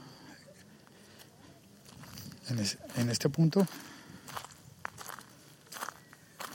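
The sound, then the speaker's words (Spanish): Crunching footsteps on ground made of earth, sand and gravel, a cluster of gritty steps in the middle with softer scuffs after, while a man speaks briefly at a quiet level. “el suelo está compuesto de tierra, arena, gravilla.”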